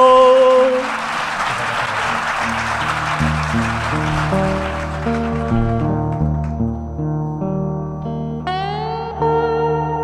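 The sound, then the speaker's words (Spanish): A burst of applause for writer Rodrigo Fresán on the radio show Onda Marciana fills the opening seconds, then thins out and fades as sustained electronic music tones take over and carry on alone to the end. “Un aplauso para él.”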